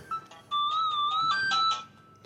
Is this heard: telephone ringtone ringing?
yes